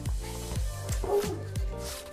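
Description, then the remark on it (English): A pet dog barks repeatedly, about five sharp, fairly loud barks in quick succession, each dropping in pitch, with some faint background noise between them. “My dog won't shut the fuck up.”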